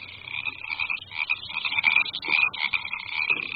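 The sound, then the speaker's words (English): A dense chorus of frogs croaking continuously in a swamp surrounded by bleak prairie, many overlapping calls forming a steady, trilling din that fills the whole stretch, fairly loud with no voices. “I listened to the merry melody of the frogs and surveyed my waterlogged domain.”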